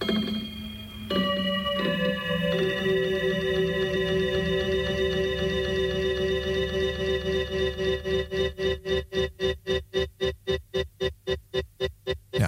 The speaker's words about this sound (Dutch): Ik doe eerst even een stukje van de tune nog een keer. Die hebben we wel eens een keertje laten horen, maar ik vind die gewoon zo mooi.